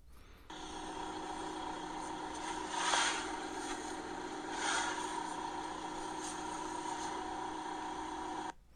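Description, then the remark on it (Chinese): A rented Mazda car's engine idles after a cold start, a loud, steady droning hum with a rough edge. Two brief swells rise around the middle before it settles back to an even idle. No one speaks. “啊，本本身马自达的这个冷车启动的声音就大”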